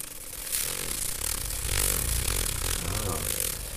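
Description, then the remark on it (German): A small rotary tool whirs steadily as its 240-grit sandpaper attachment grinds and scrapes against a hard piece of amber to sand it smooth, a continuous buzzing rasp that swells slightly in loudness midway. “Und dann habe ich einen zweiten Aufsatz, das ist Sandpapier, mhm.”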